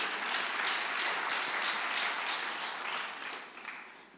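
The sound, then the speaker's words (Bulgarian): A crowd applauds during a sermon, a dense wash of many hands clapping steadily at an even level before tapering slightly toward the end, with no voices over it. “О, ако ръкопляскаш, ръкопляскай като че наистина вярваш.”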